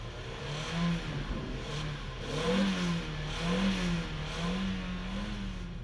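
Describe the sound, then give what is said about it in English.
A large U-Haul rental truck's engine revs and accelerates in repeated surges as it races off a ferry ramp, its low hum rising and falling in pitch, steady in loudness, with no voices. “When the ramp came down, the truck raced off.”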